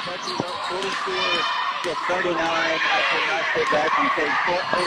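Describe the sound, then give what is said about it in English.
A loud, dense crowd of basketball fans at a Huntington game roars and shouts continuously in an arena, with excited voices overlapping and sharp squeaks and bounces punctuating the steady wall of cheering. “those fans sound absolutely nuts out there.”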